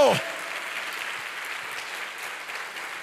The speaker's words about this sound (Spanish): Fuerte ese aplauso al Señor. Oh, dale fuerte ese aplauso.